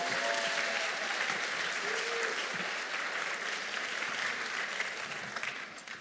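A crowd claps steadily throughout, a dense, even wash of many hands with no pauses, holding roughly the same level for the whole stretch before easing slightly at the very end.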